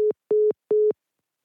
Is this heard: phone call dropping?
yes